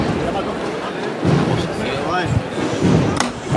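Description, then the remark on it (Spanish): The very small, simple knocker hammer of a richly detailed procession float (paso), sized just for the capataz's hand, strikes sharply, with one crisp metallic knock standing out toward the end, over a steady murmur of crowd voices and chatter. “Al martillo.”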